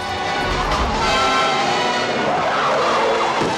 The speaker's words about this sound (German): Dann kommt meistens eine wilde Verfolgungsjagd.